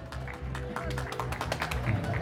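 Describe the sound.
A round of applause from a group, dense overlapping claps forming a steady crackling wash that holds for a couple of seconds, with voices murmuring underneath.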